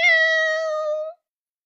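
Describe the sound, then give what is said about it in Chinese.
A single meow from a little spotted cat at home, drawn out for about a second at a fairly steady, bright pitch, clear and loud before cutting off into silence. No talking accompanies it. “小花猫说：“ 喵，真好听，我也想敲鼓。”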